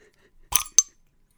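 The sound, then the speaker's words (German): A cork pops out of a bottle of Pig Ale beer: a brief rushing burst followed by one sharp, bright pop, then quiet, with no talking. “Das war ein Korkenknacker.”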